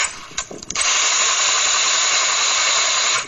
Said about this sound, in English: He's, he's, he's shooting an automatic weapon.